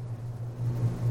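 A steady, low-pitched electrical buzz from computer equipment in a studio hums continuously, unchanging in pitch and fairly quiet, with no voices or other sounds over it.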